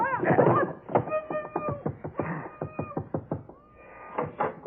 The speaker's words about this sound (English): Oh, nothing, lover. The pipes were knocking. I'm just making sure the boiler hasn't exploded.